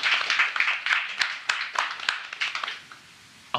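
An audience applauds steadily as a performer is called back onto the stage at the end of a show, a dense patter of many hands clapping with a few sharper individual claps standing out, then tapering off toward the end.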